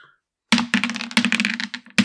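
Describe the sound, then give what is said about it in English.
Dice clatter and tumble across a hard tabletop in a quick, busy rattle lasting about a second and a half, fairly loud, ending with one last sharp knock; players rolling dice during a tabletop role-playing game. “Okay, so let's grab our dice because uh, I have some questions.”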